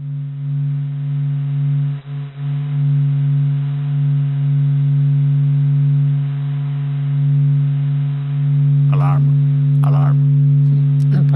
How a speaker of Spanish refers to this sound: Pues vamos a escuchar una sonificación de las vibraciones del Sol creadas en función de las, de las grabaciones del Laboratorio de Física Experimental de Stanford. Con esos datos, la NASA ha obtenido este sonido.